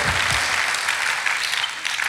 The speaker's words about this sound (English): Come on, you should be clapping me, guys. You made the effort.